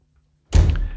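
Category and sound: household object, door opening and shutting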